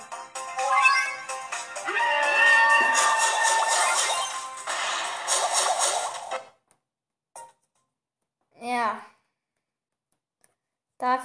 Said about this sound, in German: Und dieses Geräusch, wenn man den Bären spawnt, hört mal.